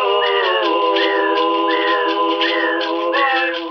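A loud, continuous whistle tone with rich overtones plays throughout, bending in pitch in a steady repeating pattern about every three-quarters of a second, with no voices.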